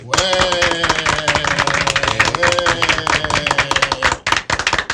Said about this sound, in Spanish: Entonces, señores, yo quiero que nosotros recibamos con un fuerte aplauso a nuestro querido hermano